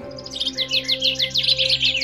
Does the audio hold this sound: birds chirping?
yes